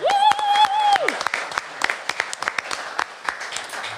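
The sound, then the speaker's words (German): An audience applauds with a steady patter of many hands clapping, opening with a sharp, sustained whistle that rises, holds, then drops away as the clapping continues. “Also ein Applaus von us an Jaue, dass ihr überhaupt hier bünd.”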